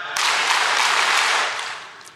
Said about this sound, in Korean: 자, 제가 치라는 숫자에 하나 빼서 어, 쳐보세요. 박수 여섯 번 시작!